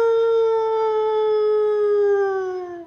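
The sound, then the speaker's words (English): A long, sustained howl like a wolf or werewolf, loud and close, holding a steady tone with rich harmonics that slowly drops in pitch before fading out. No one speaks. “Uh, we probably have a werewolf here in Cozy yeah, Corner.”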